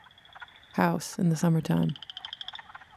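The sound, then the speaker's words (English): A chorus of frogs croaks steadily while mating in springtime, around April and May, a high, rapidly pulsing trill that runs throughout. A man speaks briefly over it partway through before the frogs carry on alone. “What you're hearing now is the sound of frogs in the springtime around April and May”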